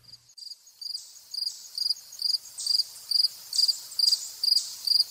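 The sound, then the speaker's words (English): Fall field crickets chirp in August at a nature center in Killingworth, Connecticut, in a steady, rapid rhythm, with regular pulsing bursts about every half second, clear against a quiet background with no voices. “fall field crickets in August. They are joined by a chipmunk and a blue jay at the Platt Nature Center in Killingworth, Connecticut.”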